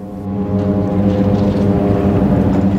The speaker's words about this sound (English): What if the constant whine and rumble of float planes suddenly just stopped? Harbour Air looking at replacing its entire fleet of de Havilland Beavers and Otters with electric engines.